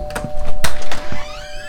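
A door is opened, with a few sharp clunks of the latch and handle followed by a brief sliding, creaking sweep, all heard clearly without any talking.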